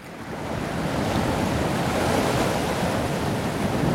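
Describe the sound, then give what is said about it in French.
Waves crash and churn against rocks in a steady, loud roar of surf, with a constant rush of water filling the scene and no voices present. “Ah, oh, ça, France Inter regarder la radio zen qui passerait sans fin le bruit des vagues sur les rochers, puisque tel est ce son magnifique,”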